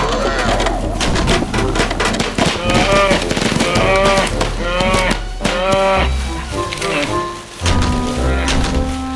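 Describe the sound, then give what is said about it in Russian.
A bear growls and roars loudly in a string of deep, drawn-out calls, each one wavering in pitch, with hardly a pause between them for about nine seconds. “Дяденька Боцман, медведь!”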